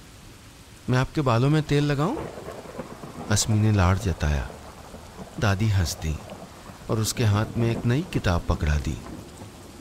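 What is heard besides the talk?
heavy rain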